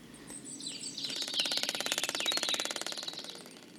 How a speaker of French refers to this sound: J'ai rapidement compris que j'avais affaire en fait à des percussions d'araignées. C'est-à-dire que ce sont des araignées qui tambourinent les feuilles mortes sur le sol et qui produisent ce son pour séduire les femelles. Donc c'est un appel sexuel